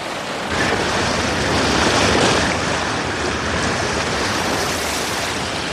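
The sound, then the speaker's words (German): A motorboat's low rumble as it reaches a beach blends with loud, steady surf washing onto the shore, a continuous roar that swells slightly early on and then holds. No voices. “Als das Motorboot den Strand erreichte”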